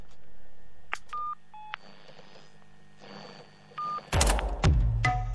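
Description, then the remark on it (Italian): A short run of telephone dialing tones, several distinct keypad beeps in quick succession, followed by louder clattering handling noise near the end. No speech. “apparivano i commenti e le domande di ascoltatori immaginari che da fuori chiamavano Radio Galerone in diretta”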